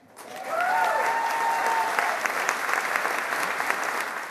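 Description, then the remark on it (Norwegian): An audience in a hall bursts into sustained applause with cheering, loud, dense clapping and a few whooping voices rising early on, as culture minister Toril Vidvei announces that the Brage Prize honorary award goes to Norway's public libraries. “Det var full jubel i salen da kulturminister Toril Vidvei kunne røpe at Brageprisens hederspris i år gikk til Norges folkebibliotek.”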